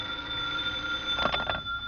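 telephone ringing

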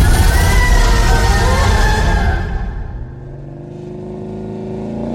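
car driving

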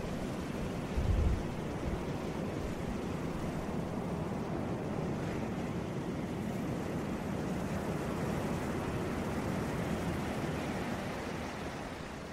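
ocean waves

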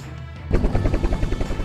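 helicopter flying

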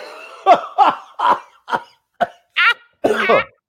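coughing fit

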